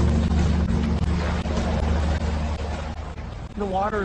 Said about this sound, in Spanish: Un helicóptero de la Guardia Costera se une a la búsqueda.